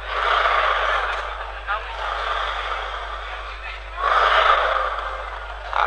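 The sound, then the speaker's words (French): Accordion bellows pushing air with a steady, breathy whoosh, swelling at the start and again partway through, with no notes played and no one speaking. “C'est un instrument qui respire. Vous voulez l'entendre respirer Ouais, écoutez.”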